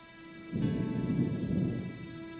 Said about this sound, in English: I don't know about y'all, but this storm about to be loud as a bitch.